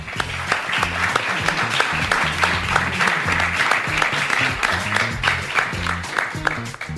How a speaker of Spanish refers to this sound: creo que se merecen un aplauso, creo que todos nos merecemos un aplauso por estar acá en este momento.